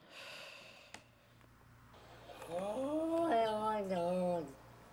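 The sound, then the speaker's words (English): A cat lets out one long, drawn-out meow that bends up and down in pitch like a spoken word, as if saying 'Long Tom Johnson', fairly loud, after a moment of soft snuffly breathing and a brief snort. “Yeah, I've heard the the cat say Long yeah, Tom Johnson.”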